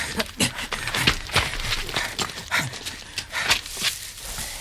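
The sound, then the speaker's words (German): A brown Labrador pushes through bushes, with repeated crackling rustles and soft thudding footfalls in an uneven rhythm, fairly loud, with no talking. “Das war jetzt aber ein Hund.”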